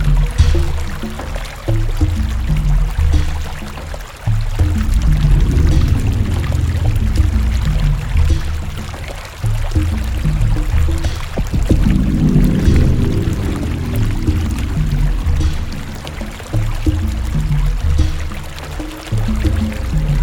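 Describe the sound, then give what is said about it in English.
A steady, loud rush of water from a waterfall pours continuously for the whole stretch, a dense roaring wash with churning low rumble, unbroken, with no voices. “Or trapped in that cave behind the waterfall.”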